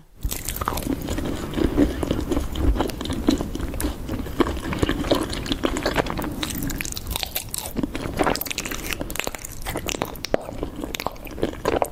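Wet chewing and biting into waxy, sticky honeycomb beeswax with honey in an ASMR eating video, with repeated squishy crunches and smacking sounds running steadily throughout, loud and intimate.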